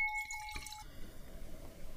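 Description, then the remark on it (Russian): A few quiet drops of straw-coloured wine fall onto a new tablecloth, with a faint glassy ring at the start, followed by soft low rustling. No one speaks. “Э, капли падают прямо на новую скатерть.”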